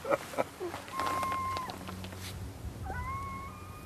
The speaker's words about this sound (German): Ein Kojote heult.